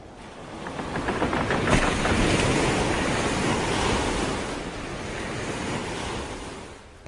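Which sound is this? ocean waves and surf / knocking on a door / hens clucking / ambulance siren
ocean waves and surf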